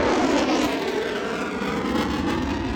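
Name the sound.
airplane flying over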